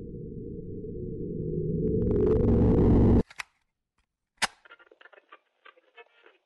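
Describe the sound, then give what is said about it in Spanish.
Sonified signals from the ALMA radio telescope in Chile's Atacama Desert, from the Sonidos de Alma project: a dense, low electronic drone swells for about three seconds, then cuts off abruptly into sharp clicks and sparse, crackling high-pitched bursts, with no voices. “Esto que escuchan, amigos y amigas, es el espacio.”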